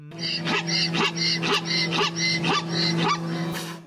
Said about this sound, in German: Da sind sehr viele Zebras, die rumlaufen und eins steht da und macht das Maul auf und schreit. Und das hat offensichtlich Probleme, so wie das schreit, ne?